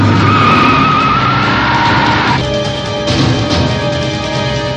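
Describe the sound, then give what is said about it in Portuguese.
A car skids with tires squealing loudly and continuously, a high shrieking whine shifting in pitch over a rumbling engine roar, sustained throughout. “Não precisa ir tão rápido, não. Vai, vai mais devagar.”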